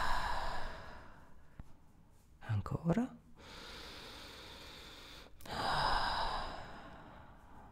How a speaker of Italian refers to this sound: Fai due bei respiri profondi.